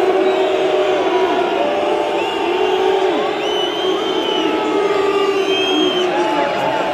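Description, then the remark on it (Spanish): A loud, dense stadium crowd whistling and jeering at Real Madrid, with many overlapping piercing whistles sliding up and down over a constant roar of voices, sustained throughout. “La rechifla es brutal para el Real Madrid.”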